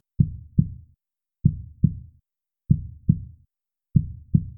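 A deep, muffled human heartbeat thumps in paired lub-dub beats, four pairs at a steady, slow rhythm, clear with silence between them and no voices.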